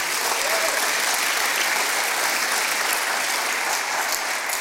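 Steady, sustained applause from an audience, a dense wash of many hands clapping at an even loudness for several seconds without a break.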